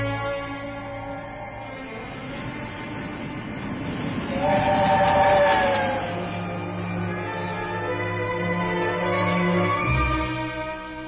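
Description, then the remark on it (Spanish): A train rumbles steadily along the tracks, a continuous low roar with a brief whistle-like tone rising in the middle before the rolling clatter carries on. “Después de un pequeño viaje en ferrocarril y otro más corto en automóvil”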